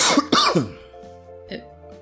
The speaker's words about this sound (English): won't keep it from still being super loud if you cough directly at the microphone.